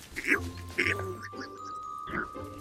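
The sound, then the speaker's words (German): A northern bald ibis (Waldrapp) gives a few hoarse, guttural greeting calls in short bursts spaced irregularly over a steady low background hum. “Der Vogel wird von den Unsern gemeiniglich ein Waldrapp genannt dieweil er in den einöden Wäldern wohnet, da er dann in den hohen Felsen oder alten Türmen und Schlossern nistet.”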